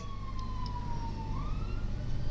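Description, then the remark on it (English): A wailing emergency siren passing outside sweeps slowly down and then back up in pitch over a steady low rumble of traffic, with no voices. “I heard the sounds go off in the background there.”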